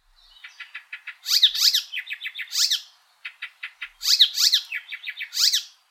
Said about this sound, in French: Les arpèges du troglodyte des canyons, les répétitions de l'hypolaïs ictérine